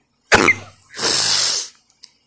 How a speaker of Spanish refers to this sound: y estoy estornudando.